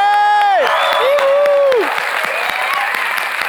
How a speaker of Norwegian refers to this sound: Ikke en skikkelig applaus, men en sånn golfapplaus sånn som Salt 16 gir fra seg